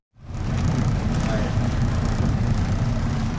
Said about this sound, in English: It's early on a sunny and warm Hawaiian morning. Zoologist Jim Darling is at the helm of his research boat as he takes off from Lahaina Harbor.